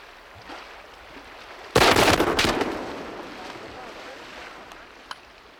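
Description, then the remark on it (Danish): A sudden, loud rifle shot cracks out, quickly followed by a second report, then a rolling echo that fades into steady outdoor background noise, with one faint sharp click later. Old World War II rifles are fired at a whale in dark water near the ice edge. “Derpå lød skuden.”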